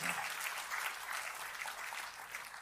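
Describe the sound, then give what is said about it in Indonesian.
A crowd gives a hearty round of applause to God, a dense wash of many hands clapping at an even level for a few seconds without pause, bright and hissy, with no voices standing out. “Jadi kita kasih tepuk tangan yang paling meriah buat Tuhan.”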